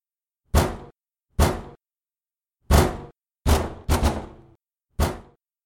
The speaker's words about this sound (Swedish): Vi visste bättre än att svara på knackningarna från dörren